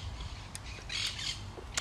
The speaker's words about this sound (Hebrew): כמו שאתם שומעים, אני שוב בטבע מחוברת לחושים. ציפורים מסביב, אז אה, מקווה שאתם נהנים מהרעשים והצלילים הטבעיים האלה.